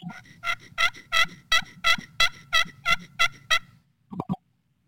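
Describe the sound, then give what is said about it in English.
A glass friction turkey call worked with a striker, drawn in an oval on the glass, makes a steady run of about ten raspy, evenly spaced yelps, clear, then two quick faint clucks after a pause. “I'd almost say it's more of an oval um, that I'm drawing on this glass.”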